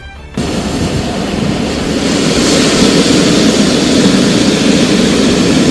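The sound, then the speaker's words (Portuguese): A deep, steady rumble kicks in abruptly and swells slightly louder as it goes, a storm approaching from the southeast over a choppy sea as fog forms, a broad continuous roar with no voices. “uma pequena névoa vem se formando e vocês avistam uma tempestade vindo do sudeste.”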